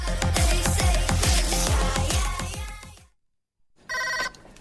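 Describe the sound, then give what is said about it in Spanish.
Music with a thumping beat fades out into a moment of silence, then a single short, loud burst of a telephone bell ringing: the Actúa registration telephone line. “Teléfono de inscripciones de Actúa, dígame.”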